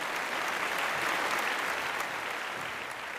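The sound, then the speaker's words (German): A live audience gives a short round of applause for the show's warm-up man seated at the front left of the stage: a dense wash of many hands clapping at once, sustained and fairly loud for a few seconds before easing slightly toward the end. “einmal kleiner Applaus für Fabian”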